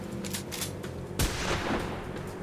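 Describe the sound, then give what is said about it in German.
A dense burst of gunfire from several weapons, including a shotgun, fired out of a car window, with overlapping shots cracking in quick, uneven succession and one especially loud blast partway through, loud with no voices. “Ihr macht das Fenster runter und schießt aus allen Rohren”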